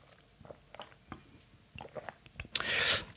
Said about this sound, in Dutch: Even een slokje.